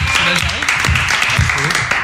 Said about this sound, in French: Les deux autres groupes, on va les applaudir aussi.